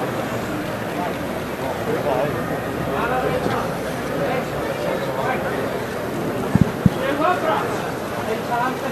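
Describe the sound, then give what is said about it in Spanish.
Many camera shutters, flashes and mobile phones click rapidly and irregularly over a busy crowd murmur as costaleros carry a procession float out through a door, with a couple of sharper, louder clicks near the end. “Estás escuchando los flashes que no paran.”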